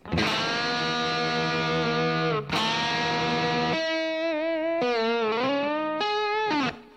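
Loud, heavily distorted electric guitar plays a solo, faking the techniques of a well-known solo: two long ringing notes, then a run of bent, wavering lead notes with vibrato, continuous and unaccompanied, with no talking.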